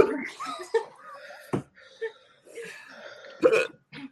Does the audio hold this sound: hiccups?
yes